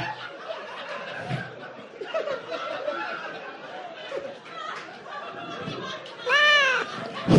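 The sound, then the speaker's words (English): A single loud, drawn-out cat meow, played as a signal that a performer's minute is up, rings out near the end, rising above a steady background of crowd chatter and laughter. “By the way, that cat meow was the signal that his minute's up.”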